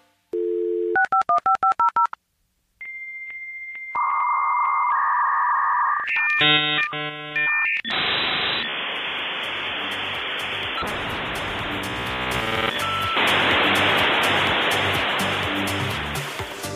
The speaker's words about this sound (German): dieses Geräusch, kennst du das noch? Oh, oh ja, das kenne ich noch. Das ist ein Modem. Damit hat man früher die Verbindung zum Internet hergestellt. Ja, das hat auch ein bisschen gedauert.